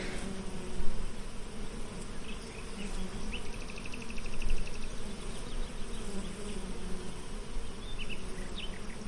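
A dense, steady drone of many honey bees buzzing around hive frames, continuous throughout, with brief higher-pitched whines of individual bees rising above the low hum. No voices.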